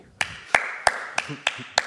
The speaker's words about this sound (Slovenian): In kdo bo ploskal, če ne bomo mi?